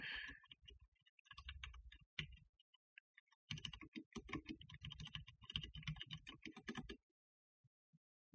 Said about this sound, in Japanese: キーボードを変えましたからね。あんまゴーゴーガタガタうるさくないっていう。